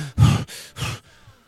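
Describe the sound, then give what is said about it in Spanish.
A voice imitates heavy, agitated breathing: three quick, loud breathy bursts in a rapid in-out rhythm, trailing off into a quiet exhale. “Pero nunca escuché una respiración agitada, ni la mía, no sé cómo, hago así.”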